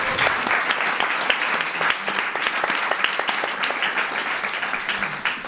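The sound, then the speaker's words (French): A crowd applauds steadily for several seconds, a dense crackle of many hands clapping at once with no pauses, holding an even loudness throughout. “On peut applaudir”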